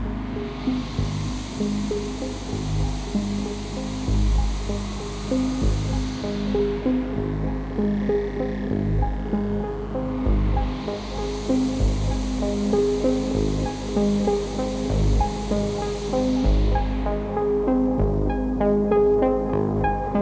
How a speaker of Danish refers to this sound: den her patch, der øh, starter jeg med at filtrere noget pink noise igennem et, øh, et filter